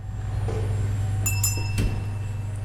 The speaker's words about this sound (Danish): Der var en klokke.